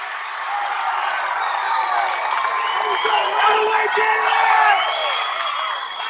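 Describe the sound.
A loud crowd at a volleyball match roars and cheers continuously after Amherst wins a point, a dense wash of many voices with shouts and whoops rising and swelling, sustained throughout.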